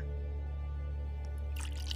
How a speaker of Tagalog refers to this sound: Nilagyan na rin niya ito ng mainit na tubig mula sa takore. Ngunit hindi pa niya ito nilagyan ng asukal.